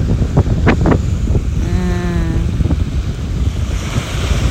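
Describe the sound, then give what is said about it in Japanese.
Steady, loud rushing surf from ocean waves washing onto the shore, with a few sharper bursts of crashing water and a brief tonal hum in the middle. No one speaks. “ただここに来たくってみんな海を見たいけど”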